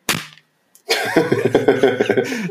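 One sharp, loud slap of an original blue duty book (Dienstbuch) smacked down onto a surface while swatting at a fly, decaying quickly. After a short silence, a longer buzzing, tonal sound with a pulsing rhythm follows.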